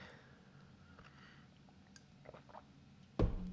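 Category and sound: food or drink, sipping coffee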